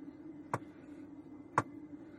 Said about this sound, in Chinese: 那那我要是这样呢，就是这种敲门声音啊。